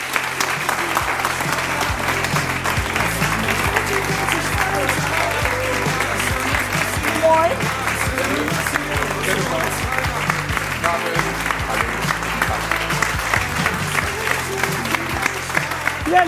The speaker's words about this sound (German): Applaus